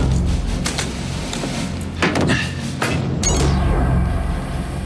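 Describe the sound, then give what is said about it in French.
Sounds of a door being handled: several sharp thuds and clattering knocks spaced over a few seconds, set against a steady low rumble, with no one speaking. “Je crois que c'est cette porte, mais il n'y a pas de nom ni de numéro.”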